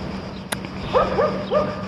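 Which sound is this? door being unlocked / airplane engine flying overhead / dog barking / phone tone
dog barking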